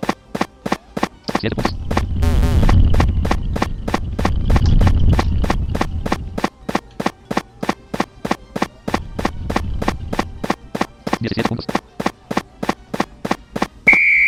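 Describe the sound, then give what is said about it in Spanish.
A video game's incoming bullet sound: a deep rumbling whoosh swells and fades, then returns later, over a fast, steady run of rhythmic clicking steps that continues throughout. “escuchen bien dónde viene la bala.”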